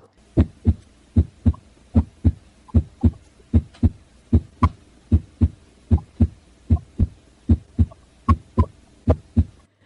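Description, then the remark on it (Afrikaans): A steady, regular heartbeat in normal sinus rhythm thumps through the whole stretch, each beat a low lub-dub pair repeating evenly at a normal, moderate pace, clear with no voices. “Voordat ons verder gaan, kom ons luister gou hoe klink 'n hart wat met die normale sinusritme, die normale ritme en tempo klop.”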